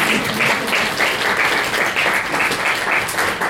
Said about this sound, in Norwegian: Dere kan ta en liten applaus.